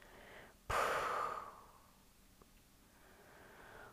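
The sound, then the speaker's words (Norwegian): A slow exhale after holding the breath during a breathing exercise begins abruptly with a strong rush of breath, then gradually fades into a soft, airy release, followed by a quiet breath near the end. No talking. “pust ut.”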